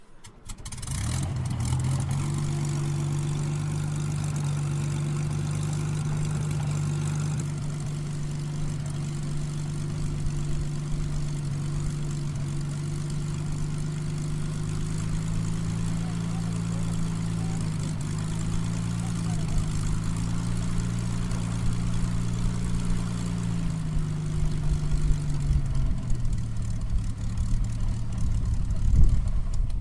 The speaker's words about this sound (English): On its arrival, the Hurricane stopped and powered up its engine again so the wartime pilot could see hear, and smell what he called his office throughout World War II.